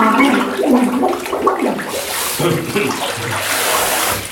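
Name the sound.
water sloshing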